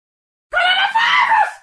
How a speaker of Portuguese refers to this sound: Mano, sem zoeira, eu gritei na janela, fez eco.